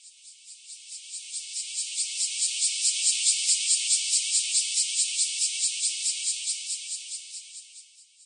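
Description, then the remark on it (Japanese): Cicadas drone in a film, very loud: a dense, pulsing chorus that swells from quiet to loud and fades again, a steady high-pitched buzz with a rapid rhythmic throb and no voices. “ただ、映画の中のセミの声がワンワンとなって、やたらうるさかったのを覚えています。”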